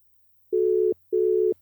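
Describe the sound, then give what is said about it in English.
A telephone ringback tone heard while a phone call to a woman connects: two steady, mid-pitched electronic bursts in quick succession, clear and moderately loud, with no voices. “Let's see if she will pick up the phone.”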